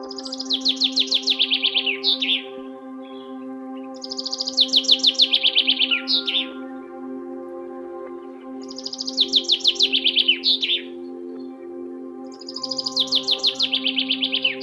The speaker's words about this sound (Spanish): Escucha atentamente el canto de los pájaros.